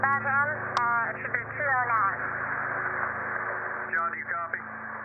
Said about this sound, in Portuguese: É, é, um som de rádio, né?